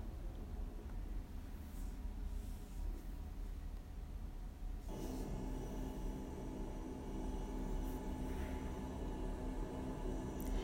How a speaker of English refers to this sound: The plane's engine began to rev up.